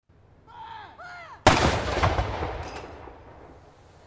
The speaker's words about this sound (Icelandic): Fallbissu skotum var hleyft af í morgun bæði í Hyde Park í London og við Edinborgarkastala til að minnast þess að árir liðið frá því Karl III settist á valdastóli í Breitlandi.